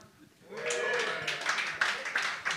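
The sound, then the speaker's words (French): At a comedy show, a man in the audience claps a few sharp, irregular times while his girlfriend does not clap. The claps ring out over a murmur of crowd laughter and chatter, fairly loud and uneven in rhythm. “Lui applaudit, sa blonde, elle l'applaudit pas, tu sais?”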